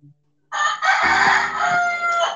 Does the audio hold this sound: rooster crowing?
yes